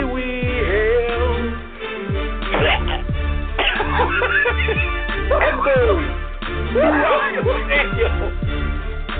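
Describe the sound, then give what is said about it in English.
A man in a stadium coughs heavily in a long, harsh fit, the loud barking coughs coming one after another in rapid bursts over a steady low musical backing. “there is a pause throughout the stadium as this man sounds like he just coughs up a lung.”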